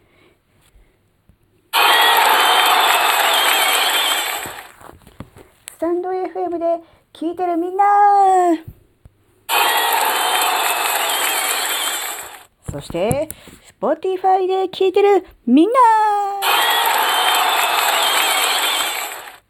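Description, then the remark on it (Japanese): Three loud bursts of a large crowd cheering and roaring, a sound effect meant to sound like an audience of 50,000, each lasting about three seconds, alternate with a single voice calling out between them. “なんかね、目の前にね、5万人の観客がいるようだわ。”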